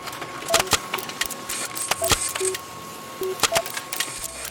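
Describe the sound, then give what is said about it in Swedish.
A printer prints out a story written by the AI assistant Aida: clusters of sharp mechanical clacks and clicks, mixed with short high beeps and a steady faint whine, repeating in bursts with no one speaking. “Jag skriver ut den till er här.”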